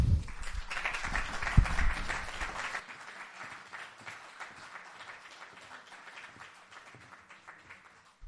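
An audience applauds a music duo as it is introduced, with a dense wash of many hands clapping, loudest over the first three seconds with some low thumps, then continuing more softly and steadily until the end.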